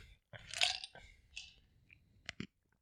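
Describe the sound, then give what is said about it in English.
Crisp crunching as a person chews ice, a few sharp bursts over about three seconds with brief pauses between bites. “Does the ice taste okay? I just heard you crunching on it.”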